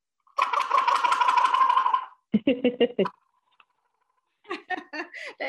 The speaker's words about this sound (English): You can use a lot of different things and this is a gobble shaker thing. I'll do it. I'm not real good at it, but